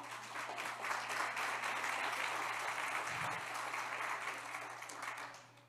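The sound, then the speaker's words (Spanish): An audience applauds the Lord steadily, a dense wash of many hands clapping at once that holds for several seconds before tapering slightly at the end. A low hum runs underneath. “Dáselo más fuerte al Señor.”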